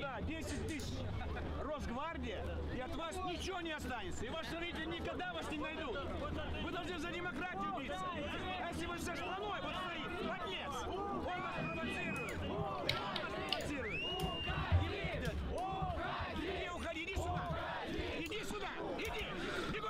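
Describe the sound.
A crowd heckles a politician surrounded by guards, many voices shouting insults and jeering over one another in a dense, continuous din, with a few louder individual shouts breaking through near the middle.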